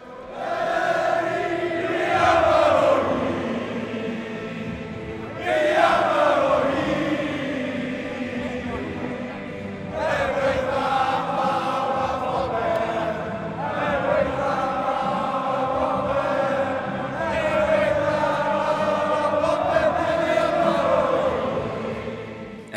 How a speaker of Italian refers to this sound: Ecco, Pierluigi, ti interrompo, facciamo sentire qualche secondo di questo inno.